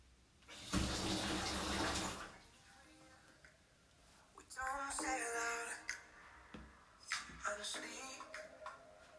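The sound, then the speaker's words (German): A tap gushes water into a bathtub in a steady, loud rush for about a second and a half, then stops; a voice speaks afterward amid faint clinks and room noise. “Deswegen nehme ich jetzt ein Bad. Genau. Und ja, dafür braucht man natürlich erstmal Wasser.”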